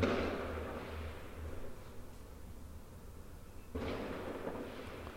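Fireworks explode in two bursts, one at the start and another a few seconds later, each a sharp crack fading into a long rolling rumble over a low steady background hum.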